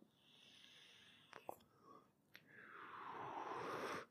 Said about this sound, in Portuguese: É bom fumar o vape agora, porque vai secar minha garganta. E aí eu vou começar a tossir mais. e vai ser bem legal, tá? Então essa é a hora perfeita para fumar o vape.